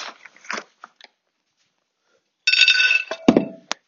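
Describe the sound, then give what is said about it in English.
A female dog crunches dry food, mostly the previous day's leftovers, from a bowl: a few sparse bites, a pause of silence, then a burst of loud, rapid chewing with a faint metallic clink of the dish. “She's eating most of yesterday's.”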